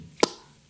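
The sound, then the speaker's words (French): A single sharp pop, like a cork pulled from a bottle, crisp with a brief ringing tail, then near silence. “C'est le bruit du bouchon qui ah. sort de sa bouteille.”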